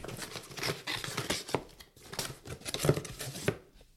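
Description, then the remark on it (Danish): Solid tape is ripped off a cardboard box parcel in a series of rough, crackling pulls, with short pauses between them. The sound is fairly loud, and no one speaks. “Vil, vil du åbne den?”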